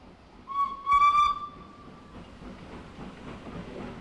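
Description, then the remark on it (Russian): A train whistle blows one sustained, fairly loud blast, then the steady, slow rumbling clatter of a train approaching on rails from the other side of a bridge carries on, with no voices. “Но не из той дали – куда устремил он свои взоры, приближался поезд. Его медленный стук раздавался по ту сторону моста.”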